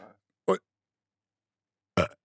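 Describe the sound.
Two short, throaty burps separated by about a second and a half of silence, both loud and close, with a faint trailing voice sound at the very start.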